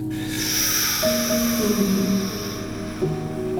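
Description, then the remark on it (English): A person draws a long, hissing breath in through clenched teeth, lasting a couple of seconds over a faint low hum. “and I could do the sucking through my teeth.”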